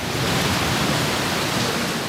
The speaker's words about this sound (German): Beim Besuch seiner Gemeinde Anfang Juni regnet es in Strömen. Binnen Sekunden steht der Innenhof unter Wasser